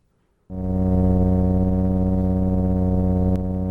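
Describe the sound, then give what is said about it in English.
A loud, steady low-pitched drone, the mystery hum heard along the west coast of the United States, in West Seattle in September 2012, starts abruptly after a brief silence and holds constant, rich with stacked harmonic tones, with a faint click near the end. “The West Coast Mystery Hum.”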